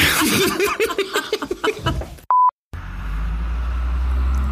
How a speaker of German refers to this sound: Ist das ein Auto? Man weiß es nicht so genau. Oder eine Abrissbirne. Hast du die Straße nicht gesperrt?